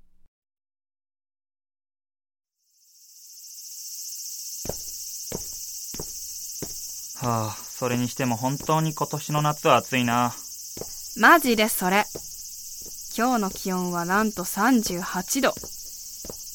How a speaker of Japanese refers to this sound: でも、夜に聞こえてくるスズムシの声とか、なんかザ田舎って感じしていいよね。まあ、夜の虫の声は結構好きだし、涼しいし割と気に入ってはいるんだけどさ。